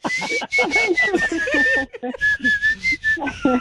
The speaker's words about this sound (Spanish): No, mejor que no cantes. No, mejor no cante. mejor, chiflala, güey. Chiflala. Mejor chiflala.